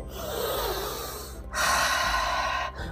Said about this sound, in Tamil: அப்படின்னு ப்ரீத் பண்ணி காட்டுறாரு பொண்ணும் அதே மாதிரி குட்டியாக ஒரு ப்ரீத் விட்டுட்டு